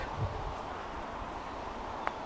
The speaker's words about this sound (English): The wind starts to pick up as we stand now amidst the trees.